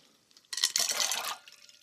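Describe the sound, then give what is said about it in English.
Ice cubes tumble into a bowl of water with a short, bright burst of splashing and clinking, loud, lasting under a second before fading into quiet. “So, we're going to take some ice cubes and we're going to put them into a bowl of water.”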